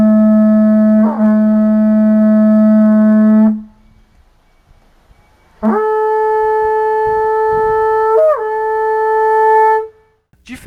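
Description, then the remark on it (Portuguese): Two long, loud blasts on a horagai conch shell trumpet, a wind instrument made from a large shell with a mouthpiece like a cornet's: a deep buzzing horn tone rich in overtones; the second blast starts higher and bends downward near its end, with a short pause between. “Em seguida, outro instrumento de sopro usado pelos grupos é o horagai, que é feito a partir de uma concha grande com uma embocadura semelhante ao de uma corneta.”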